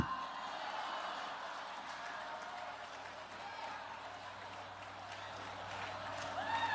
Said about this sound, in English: I thought I'd hear many more applause on that one.